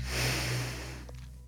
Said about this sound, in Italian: Brevi, intensi. Inspiro naso, butto fuori naso. Ultimo. Inspiro naso. Espiro naso.